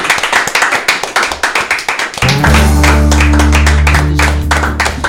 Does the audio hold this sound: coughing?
no